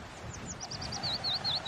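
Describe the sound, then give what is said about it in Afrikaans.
Birds sing in the trees in a quick series of high, sweeping chirps that start faint and grow louder and sharper toward the end, over a soft, low background rumble. “Hy sien voëls in die bome en hy hoor hoe hulle sing.”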